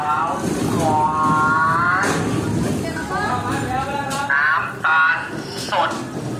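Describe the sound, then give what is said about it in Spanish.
Busy street ambience in Thailand with a steady rumble of passing engines, motorbikes and bicycles, overlapping voices and calls from people and vendors, and occasional whining, rising tones cutting through the crowded din. “Como pueden escuchar, esto es bastante movido. Estamos aquí casi que codeándonos con las motos, las bicicletas, los vendedores.”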